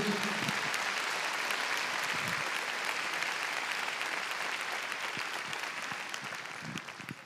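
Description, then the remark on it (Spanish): An audience applauds the Lord steadily, a dense wash of many hands clapping together that stays loud throughout and tapers slightly toward the end, with a few faint voices mixed in. “Qué lindo es el Señor, hermano. Déselo fuerte al Rey.”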